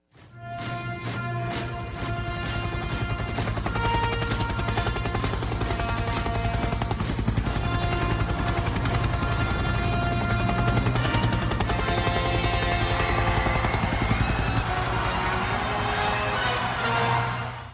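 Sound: helicopter rotor blades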